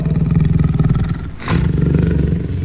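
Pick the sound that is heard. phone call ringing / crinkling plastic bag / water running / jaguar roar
jaguar roar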